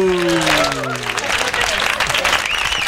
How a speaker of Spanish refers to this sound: ¿Cómo están? Menos mal que tienen aplauso grabado, ¿no? Porque, este, No aplaude nadie.